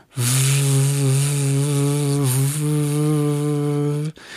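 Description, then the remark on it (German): A voice imitates a vacuum cleaner being run through a flat over floors with no carpet, with a loud, steady, buzzing drone held for about four seconds, dipping briefly midway before cutting off abruptly. “Und die meisten haben die Borsten draußen, laufen mit dem Staubsauger durch die ganze Wohnung, wo kein Teppich ist, und machen aber das Geräusch von dem Staubsauger”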